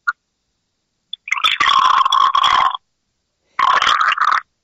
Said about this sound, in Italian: Ho detto il dolcino, no? in Frizzantino 12 gradi. È brusco, è brusco come il dottor Lambrusco. Eh, mi scusi. Senti, senti che adesso lo verso nel bicchiere, senti. Dai.